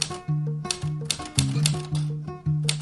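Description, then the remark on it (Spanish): Sharp typewriter keystrokes clack at an irregular pace, loud, layered over a steady, humming musical tone with no voices. “La vida a través del golpe de teclado.”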